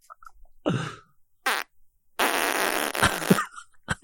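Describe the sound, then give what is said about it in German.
A series of fart sounds: a short wet burst, then a quick sputter, followed by a long, loud, raspy blast lasting over a second, ending with a brief final puff. Prominent, no talking. “Immer nur so, aua, und dann richtig losgeschissen, Alter.”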